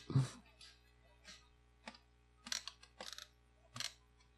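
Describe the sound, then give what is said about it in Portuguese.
A chair creaks and clicks in a series of short, irregular bursts spread over a few seconds, fairly quiet, with no one talking. “Nossa cadeira tava fazendo um puta barulho que nunca fez na minha vida.”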